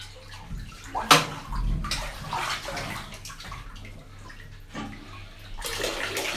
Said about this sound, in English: you gotta quit throwing water.